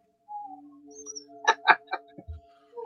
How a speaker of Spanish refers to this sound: Pobrecito el perro, ¿por qué estará llorando?